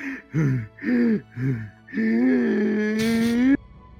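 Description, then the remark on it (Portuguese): Loud, exaggerated exhausted panting: four quick voiced gasps in a steady rhythm, then a long drawn-out groaning breath that ends in a harsh, breathy rush. “Bom, galera, eu tô assim, respirando assim, exausto, né?”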